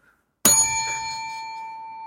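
A bell is struck once, clear, and its bright metallic tone rings on steadily with little fading. There is no talking, just the lingering chime after a brief quiet start.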